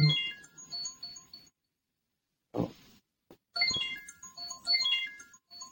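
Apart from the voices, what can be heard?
phone ringtone ringing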